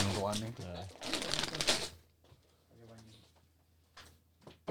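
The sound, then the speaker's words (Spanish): Pistachio shells are cracked and eaten near a microphone, crunching right up close: a dense crackly burst followed later by a few sharp, isolated snaps, with people chatting before and between the noises. “Ey, ey, ey, no a mi pistacho. ASMR.”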